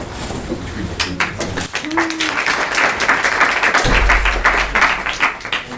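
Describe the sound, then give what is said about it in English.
A crowd applauds steadily for several seconds as the next speaker of a talk is introduced, a dense wash of many hands clapping at once, fairly loud, with a faint low thump partway through. “Don't, don't clap until the end.”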